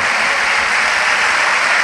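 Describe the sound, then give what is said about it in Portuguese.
A crowd in Vila da Penha, Rio de Janeiro, Brazil applauding together for a Bible passage, a loud, steady wash of dense clapping with no breaks and no voices standing out. “Eu também creio, então vamos dar uma grande salva de palmas para esta palavra.”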